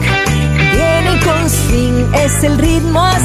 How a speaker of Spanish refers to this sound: Nos despedimos ya, nos despedimos con la cuarta canción de la colección ….